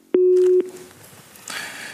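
A single steady, low-pitched telephone ringing tone sounds for about half a second, clicking on and off, followed by faint line noise and then a soft hiss. No one speaks.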